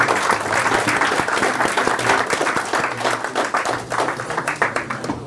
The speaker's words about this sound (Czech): Já myslím, že ten aplaus asi vypovídal o tom, že, eh, že večer se povedl.